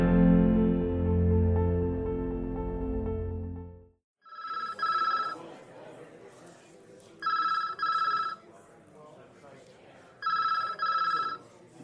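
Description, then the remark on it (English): A telephone rings three times at the Seattle Police Station in the Breezy precinct, each ring a quick double trill, over a low murmur of background noise, after a loud sustained tone at the start. “phone rings yet again in the Breezy precinct.”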